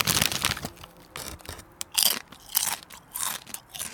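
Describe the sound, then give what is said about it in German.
Crisp crunching of chocolate cornflake clusters (Schokocrossies) being bitten and chewed, a string of sharp bursts in an irregular rhythm with brief pauses, no talking. “Schokocrossis meinst du?”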